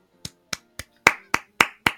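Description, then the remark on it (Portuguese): Seven sharp hand claps for B15, a character in Loki, in a steady rhythm, the first three lighter and the last four louder and fuller, with no voices over them. “palmas pra B15, porque no episódio passado ela já mitou, é, salvando o Loki e a Sylvie ali no momento que eles estavam perante aos falsos guardiões.”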